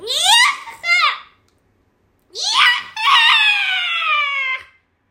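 Loud, high-pitched screaming: a short pair of wavering yells, a brief pause, then one long, sustained shriek that holds steady before cutting off.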